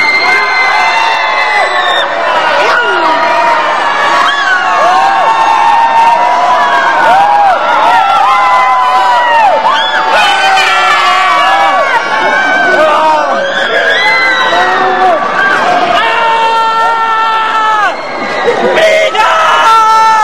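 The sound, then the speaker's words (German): A large group of people yells and screams together at full volume, a dense, overlapping wall of high-pitched shouts and cries that carries on without pause for about twenty seconds. “Stoßt einen lauten Schrei aus.”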